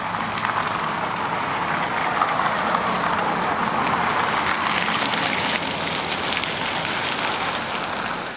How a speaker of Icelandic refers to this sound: svona stóru umferðargötur eru Eh, nálast okkur og í hvað áttir þær fara hérna þá hérna er hérna eh, mjög gott að átta sig sagt, átta sig með þessu í rauninu bara að hlusta á umferðina í fjaska en auðvitað líka umferðina sem er sem sagt, nálagt okkur